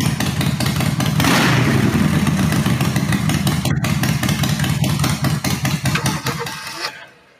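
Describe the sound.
A loud motorcycle engine rumbles, revving up early on and then chugging steadily before cutting out abruptly near the end. No one speaks over it.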